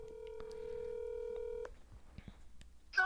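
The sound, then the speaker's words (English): A phone call on speaker: a steady electronic ringing tone hums for about a second and a half, then cuts off, leaving faint clicks and a brief muffled burst as the line connects. “You're on my podcast right now on speaker.”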